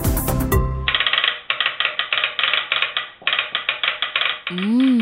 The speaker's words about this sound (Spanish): Funciona con pulsos o señales eléctricas que representan palabras codificadas en un lenguaje llamado código Morse. Te voy a mostrar cómo se escuchaba el telégrafo cuando alguien creaba un mensaje.